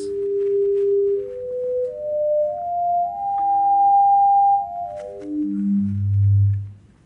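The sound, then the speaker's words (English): A clean, pure electronic tone climbs upward in a series of held steps at two, three and four times the base frequency, like a string cut into halves, thirds and quarters, then descends step by step to a deep, louder low note. No voices. “But now if you cut the string in half, you'll get two strings, each oscillating twice as fast. And that'll produce a related note, or three times as fast, or four times.”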